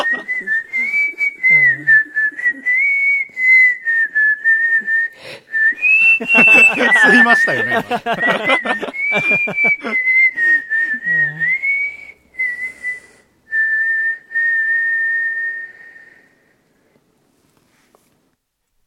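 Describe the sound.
A person whistles a song's chorus melody loudly and steadily, hitting the high notes, the pitch rising and falling through a catchy phrase, with a few spoken words and breaths heard over it before it trails off. The whistled version was sent in from Wakkanai, at the northern tip of Hokkaido, Japan.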